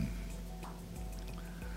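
Water pours in a short, steady stream with a few faint drips over a low background hum, and no one speaks.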